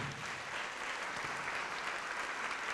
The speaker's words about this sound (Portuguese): Vamos aplaudir ao Senhor Jesus, vem.